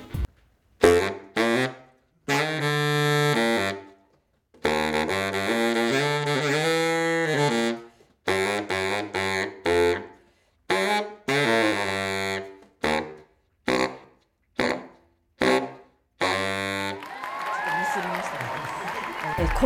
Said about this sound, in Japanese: バリトンサックスっていうのがまあ何て言うんですかねこうちょっとおっさんみたいなあの声自分ではこう出せない音域のおっさんみたいな声でずっと憧れてたんですけれども結構上の方のあの音も好きで。